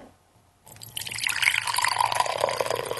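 Hot liquid pours steadily into a cup, a continuous bright splashing stream that starts abruptly after a brief quiet moment and keeps going, with no talking.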